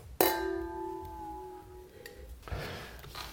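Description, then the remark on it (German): Wine glasses holding a 2016 Bourgogne Blanc from Rollo clink once in a toast, a sharp bright strike followed by a clear, bell-like ring that fades over about a second and a half, then soft rustling. “Schnick, schnack, schnuck. Klingen.”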